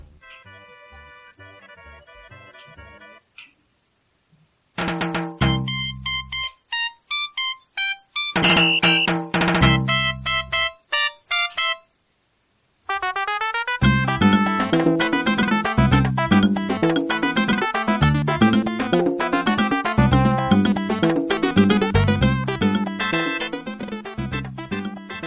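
Video game music for the level The Flying King, with a bright, electronic tone: a soft melodic intro, then punchy stop-start phrases, before a loud, busy, upbeat full arrangement kicks in and plays continuously. No voices.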